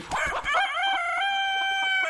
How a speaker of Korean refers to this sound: 꼬꼬댁 할 줄 알았는데 알겠습니다. 네. 제가 나중에 효과음으로 넣어놓을 수도 있습니다.